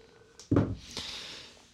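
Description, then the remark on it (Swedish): A dull thump is followed by a short, high electronic telephone ring lasting about half a second, moderately loud, with no talking. “Oj, nu ringer det överallt här.”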